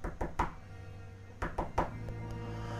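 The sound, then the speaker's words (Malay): Two sets of three quick knocks on living-room window glass at night, separated by a short pause, with a couple of fainter taps afterward over a low background hum. The knocking sounds fairly sharp. “Dan bunyi orang ketuk di cermin tingkap.”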